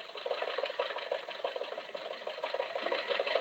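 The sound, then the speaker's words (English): The engine of the car Jack and Rochester are driving to the Hillcrest Country Club early in the morning runs steadily with a fast, even chugging rhythm over a continuous mechanical hum, holding the same level throughout with no voices. “In fact, bright and early this morning, Jack and Rochester got in the car and started for the Hillcrest Country Club.”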